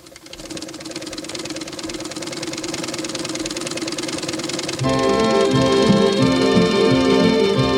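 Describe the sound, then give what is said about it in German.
An old sewing machine runs quietly with a steady, continuous mechanical whir and rattle, even throughout; partway through, sustained musical tones rise in alongside it while the machine keeps humming. “leise summt die alte Nähmaschine.”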